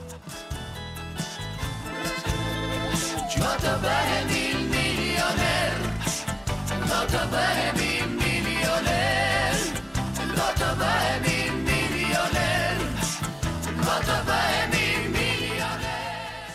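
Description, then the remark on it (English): A catchy campaign song by the political party Partia Fort, its lyrics meaning 'We will all be millionaires', plays loud and steady throughout, with a thumping rhythmic bass line under bright, layered instruments and no spoken voices. “Partia Fort created this song, the one you're listening to, and a music video shortly after the big flip flop incident at the debates.”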